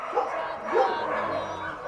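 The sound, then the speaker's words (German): Several dogs in an animal shelter, held in two runs before departing that day, bark and whimper amid a busy, reverberant din, with two louder yelping bursts standing out over a continuous background of canine noise. “Die Hunde, die heute ausreisen, wurden schon in zwei Ausläufe geholt”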